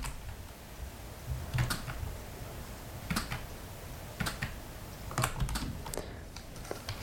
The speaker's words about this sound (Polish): Mhm to jest klawiatura brailleowska, może, ja, może na niej, nie wiem, może ja tak piszę jakoś, no bo to pewnie może można na tym pisać ciszej